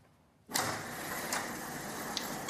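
A door opens abruptly after a brief quiet moment, releasing a steady, fairly loud rush of mechanical noise with a couple of faint clicks as it keeps moving.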